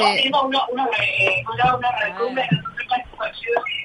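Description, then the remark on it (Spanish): Talk over a tinny phone line, the voices smeared and doubled by echo because the phone's microphone is enabled; steady and fairly loud throughout, with the repeated sound overlapping the speech. “Estamos teniendo uno, unos eh, retumbes ah. nosotros con el sonido.”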